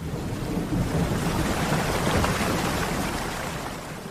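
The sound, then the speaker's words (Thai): A steady, loud roar of rushing water fills the whole stretch, a dense turbulent wash with no pauses or voices, like floodwater surging. “พอน้ำท่วมนี่ก็ท่วมทวีคูณ”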